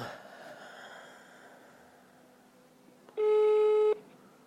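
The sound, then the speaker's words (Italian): A telephone line tone sounds once as a live radio broadcast redials a dropped call to a reporter: a single loud, steady, buzzy beep lasting under a second, after a few seconds of faint hiss and breathy noise. “Caduta la linea, richiamiamo allora,”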